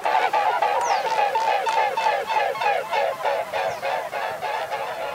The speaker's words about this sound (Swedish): Eh, så att det lätet från knölsvanen som oftast hörs, det är faktiskt inte från strupen utan från vingarna. Det är ett vingsus från flygande knölsvanar som vi kan lyssna på här.